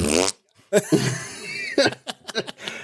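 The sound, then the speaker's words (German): A loud fart rasps for about a second after a short voiced burst, followed by several quick sputtering pops and what sounds like snickering laughter. “ich glaube, weil ich gefurzt”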